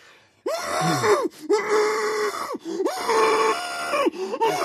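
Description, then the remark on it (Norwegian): A patient being operated on in an operating room of former times, when there was hardly any anesthesia, groans and wails in pain: three long strained cries with rising and falling pitch, separated by short sharp intakes of breath, loud and raw with no other talk. “Sånn var Omtrent veldig sånn ofte hørtes det ut. lyden i et eh, operasjonsrom den gangen.”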